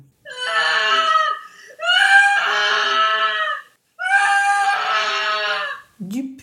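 A woman lets out three long, shrill, piercing screams, loud and high-pitched, each lasting about a second with brief gaps between them, followed by a short low sound at the end.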